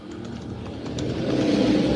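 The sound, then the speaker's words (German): A car or motorcycle passes outside the window, its low engine rumble swelling steadily louder over two seconds, muffled as if heard through the window, with no one speaking. “Nein, das ist hier halt am Fenster, da fährt halt ein Auto oder ein Motorrad oder so ein Ding.”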